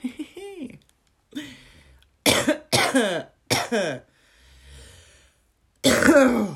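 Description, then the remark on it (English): A run of harsh coughs and raspy throat clearing, several sharp bursts in a row with short pauses, ending in one more loud, hacking cough. “God, sound like I smoke sixty fags a day.”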